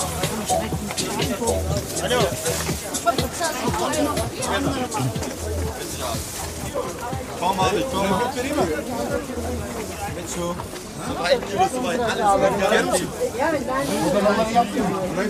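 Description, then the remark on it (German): Dense, steady chatter from a busy market crowd, many overlapping voices blending into a continuous murmur, while one voice speaks briefly over the din. “Boah, jetzt wird's aber voll hier.”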